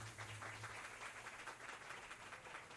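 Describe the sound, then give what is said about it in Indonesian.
Hands clap in a dense, steady patter that sounds like a small round of applause, with many quick overlapping claps and no voices, lasting the full few seconds. “anjing gua kianan siapa tepuk tangan”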